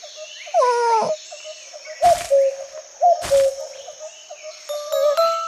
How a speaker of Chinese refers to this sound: 小鸟会说话耶，它说不哭。 火火兔，这是布谷鸟，他说的是布谷，不是不哭哦。